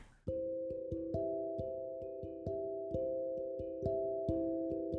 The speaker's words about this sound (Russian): Так гудят провода во время дождя.